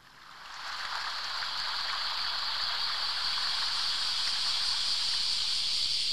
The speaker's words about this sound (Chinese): 这是这怎么听着像冲厕所的声音？ 呃，这是一个生态厕所啊，这是一个蝉鸣的声音。 哦，夏天， 蝉 嗯 鸣